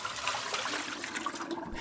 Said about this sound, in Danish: Altså lidt på samme måde, som når du hælder vandet fra spaghettierne derhjemme.